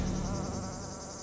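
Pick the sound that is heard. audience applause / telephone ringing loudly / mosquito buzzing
mosquito buzzing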